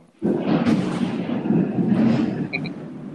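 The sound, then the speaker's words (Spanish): A loud thunderclap cracks suddenly and rolls into a long, deep rumble that stays heavy and sustained for several seconds, powerful, with no voices present. “trueno, trueno, quise decir.”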